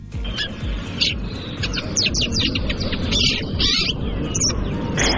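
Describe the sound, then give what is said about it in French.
A migratory pie species' call and song: a run of short, scratchy chirps and notes repeating irregularly over a steady low rumbling background, with no one speaking. “Alors, intéressons-nous peut-être au, au cri au chant de, de cette pie.”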